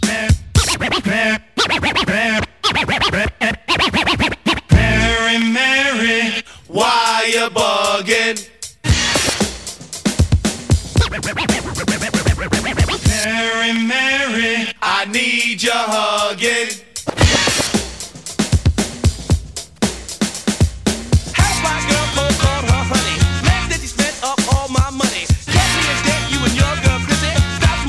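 A loud hip-hop track with choppy turntable scratching and stuttering, cut-up samples riding over a steady, punchy beat, playing continuously up close.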